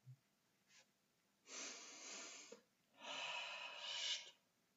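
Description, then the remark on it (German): Two long, heavy breaths drawn in sharply through the nose, each a loud, rough snorting inhale lasting about a second, with a short faint breath before them and no talking. “Man muss zwischendurch atmen, das ist wichtig.”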